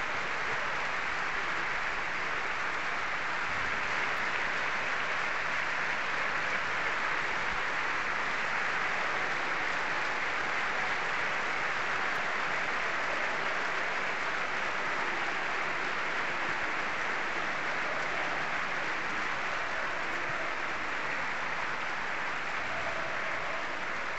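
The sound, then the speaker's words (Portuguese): A large stadium crowd at Alvalade applauds steadily in place of a minute's silence in memory of former Sporting defender Alexandre Batista. It is a dense, unbroken wash of clapping that holds at an even level throughout, with no voices standing out. “O minuto de silêncio começa a ser cumprido nesta altura. É, e que é substituído por palmas aqui em Alvalade.”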